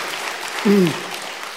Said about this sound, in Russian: Дайте им аплодисменты.